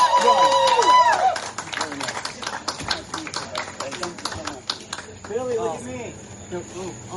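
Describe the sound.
A burst of applause from a crowd, dense irregular clapping lasting several seconds, with voices talking over it at the start and again as the clapping fades.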